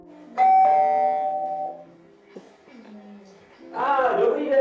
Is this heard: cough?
no